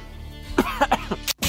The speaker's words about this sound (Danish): Jeg vil i hvert fald lige gå ud og hoste ned i ærmet en tur.